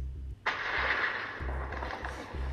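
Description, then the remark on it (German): A sudden, loud thunderclap bursts in and rolls on as a broad, sustained rumble over a steady, pulsing low game soundtrack, with no voices. “Scheiß Gewitter, halt mir denn nicht deine Klappe, ich will hier schlafen.”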